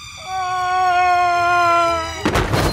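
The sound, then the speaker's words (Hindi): A cartoonish meteorite-impact effect: a steady, high whistling tone holds for about two seconds, then a sudden, loud, rumbling explosion bursts in and carries on to the end. No one speaks. “मोहल्ले वाले भी सोचते रह गए कि अचानक से ये उल्का पिंड के गिरने की आवाज कहां से आई”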